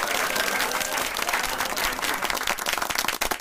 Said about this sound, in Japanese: パチパチパチパチパチパチパチパチパチパチ。拍手入れるね。